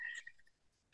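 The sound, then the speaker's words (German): A short electronic phone notification chime, a bright tonal ping followed by a few quick softer blips, clear with no talking over it. “Entschuldigung, das war mein Telefon.”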